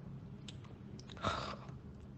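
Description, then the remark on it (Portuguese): A voice imitates a snore: one short, breathy, rasping snort in the middle, fairly quiet, with soft mouth noises around it and no speech. “Fez som de estar roncando.”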